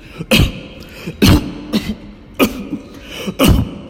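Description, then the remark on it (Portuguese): A man coughs in four harsh, heavy bursts spaced about a second apart, loud, with no talking in between. “… começa a tossir.”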